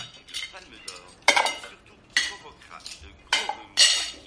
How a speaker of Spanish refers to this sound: recoge los platos sucios de la mesa con cara de enfado